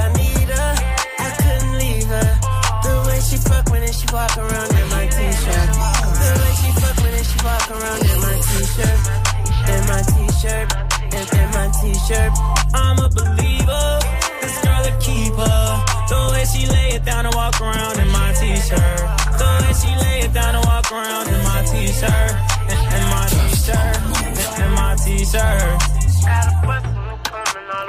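A hip-hop song plays loudly and steadily, with a booming bass line pulsing in a regular rhythm beneath crisp hi-hat ticks and layered melodic tones, no talking over it.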